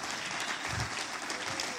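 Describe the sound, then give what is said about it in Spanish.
A church audience applauds for Jesus during a sermon, a steady, dense wash of many hands clapping at even loudness throughout, with a faint murmur of voices mixed in. “Alguien le da un aplauso a Jesús.”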